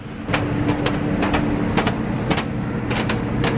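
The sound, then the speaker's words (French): Footsteps ring out on an iron spiral staircase in a paper mill, leading to the paper machine, a steady series of sharp metallic clanks over a constant low machinery hum, with no one talking. “Un escalier en fer en colimaçon.”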